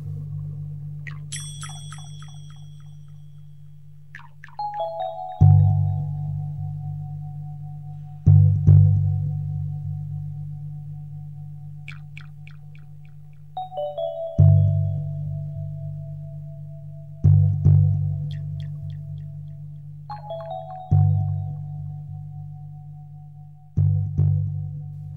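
High tinkling bells ring out in slow, evenly spaced strikes, each note trailing off in long echoing reverberation above a deep, steady low drone, in a night-time stroll through the Cité des Lunes, a magic city holding the water tower.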